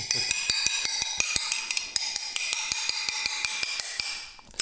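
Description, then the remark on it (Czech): Glass scored with a glazier's cutting knife cracks apart in a run of sharp, evenly spaced crackling clicks over a bright, high ringing tone, with no one talking. “Křaplavý zvuk a je to.”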